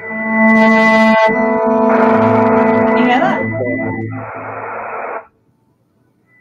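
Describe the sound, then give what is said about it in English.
A loud, buzzy electronic tone with rich harmonics from a gesture-controlled prototype instrument (a micro:bit radioing accelerometer y coordinates to another micro:bit connected to a computer) holds steady, then shifts and wavers in pitch for about five seconds, theremin-like, before cutting off abruptly; a voice briefly speaks over it. “It's like a, a theremin, but it's not a theremin.”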